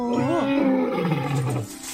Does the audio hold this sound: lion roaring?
yes